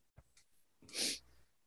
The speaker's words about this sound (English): You're sneezing. tunnel, yes, the tunnel is dusty.